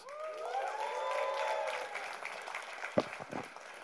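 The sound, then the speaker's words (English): An audience applauds on request, steadily, mixed with a few whoops and cheers in the first half, then the clapping thins out with a couple of sharper individual claps near the end. “Let me get a clap.”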